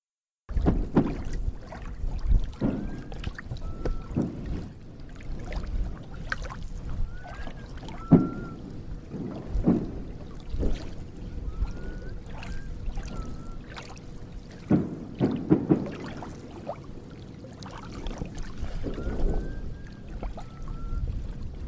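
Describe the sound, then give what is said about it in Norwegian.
Faint whistles rise and fall in short two-part phrases, returning four or five times over steady splashing and knocking from water and a small boat outdoors, in a recording made by a boy from Missouri. “Nå skal dere få høre opptaket av plystringa som denne gutten fra Missouri gjorde.”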